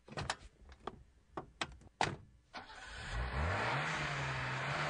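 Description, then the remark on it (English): A few sharp thunks and clicks, like a car door shutting, followed by a newly bought car's engine starting up and revving, its pitch climbing and then holding at a steady roar. No one speaks. “Check out my new car I just got from Riverside Premier Motors.”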